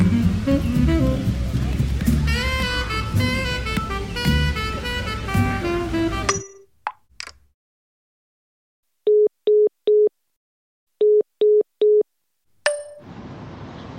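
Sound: telephone busy signal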